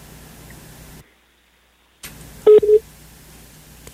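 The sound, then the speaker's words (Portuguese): A brief, loud electronic phone tone chirps twice in quick succession on a cellphone as a call comes in, following a sudden second of dead silence, with a low steady hum in the background and no talking. “É porque está entrando uma ligação aqui no meu celular,”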